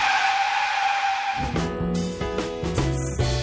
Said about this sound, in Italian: creando nel lettore l'effetto di una frenata improvvisa su un rettilineo deserto.